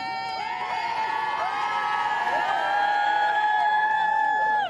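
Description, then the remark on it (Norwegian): A large crowd cheers and shouts continuously outside the gates of Buckingham Palace in London late at night, celebrating the birth of a new prince. Many voices overlap in a dense, sustained roar with rising whoops, loud and steady throughout. “Jublende folkemengder presset seg mot porten til Buckingham Palace til langt på natt, mens de spratt champagne for å feire den nyfødte tronarvingen.”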